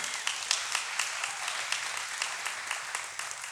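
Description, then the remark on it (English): A crowd applauds steadily, many hands clapping in a dense, continuous patter that stays fairly even in loudness throughout, with no talking over it. “And when I hear that, yeah, we can clap for that.”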